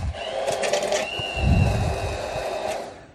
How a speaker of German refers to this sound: Natürlich tun wir gleich noch ein bisschen Salz dran, aber erstmal püre ich kurz die Zwiebelstücke.